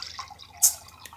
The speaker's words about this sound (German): Ich gieß mir auch mal was ein. Ich habe ja auch was davon.